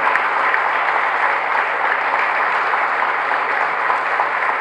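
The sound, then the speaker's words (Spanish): Steady, loud applause from an audience welcoming local artists, a dense wash of many hands clapping at once that holds an even level for several seconds with no voices over it. “Quiero que los recibamos con un fuerte, fuerte aplauso.”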